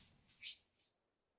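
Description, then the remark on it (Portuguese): Cats scratching at a door: two quick, faint scraping strokes, the first a bit louder than the second, with nothing else around them. “Os gatos estão destruindo São os gatos arranhando a porta para tentar entrar.”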